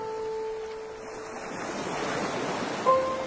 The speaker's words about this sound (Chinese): 海浪对应着回忆，拍打在细软的沙子上，被明亮晒得周身滚烫。